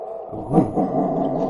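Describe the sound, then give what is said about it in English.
A person vocally imitates an otherworldly dog bark: one abrupt, gruff burst followed by a drawn-out, rumbling growl-like tone, fairly loud, with no other sounds around it. “And and not only is his barking clearing your head, his barking does not sound like any dog you've ever heard in your life.”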